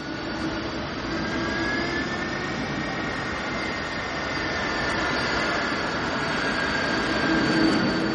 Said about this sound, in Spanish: Cruza la pista que recorre un avión.